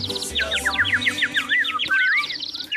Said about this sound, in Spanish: Todo sucedió una fresca y descontaminada mañana del 20 de julio de 1810, en la bella Santa Fe. Los pajaritos cantaban.